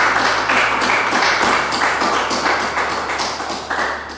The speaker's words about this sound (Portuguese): Quem crê, diz amém, aplaude ao Senhor aí no seu lugar, por favor. Glória a Deus.